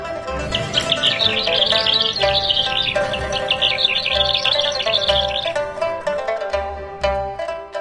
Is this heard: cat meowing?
no